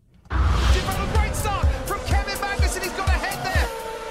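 A small car's motor whines and revs steadily on a racetrack, its pitch rising and falling as it races around the track, with soft rhythmic thumps underneath.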